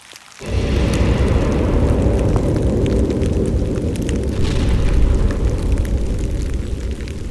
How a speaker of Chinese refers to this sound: 伴随着雨声的是几道闪电，毫不客气地划破了天空。紧跟在后面的，当然就是好几声打雷的巨响。